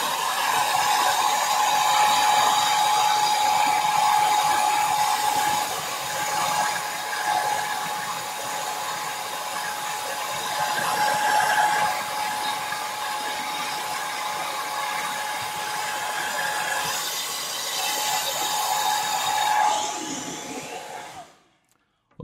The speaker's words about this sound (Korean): 어떻습니까, 여러분? 아, 이거 정말 너무 좋지 않나요? 네. 자, JMW 아트에어 드라이기.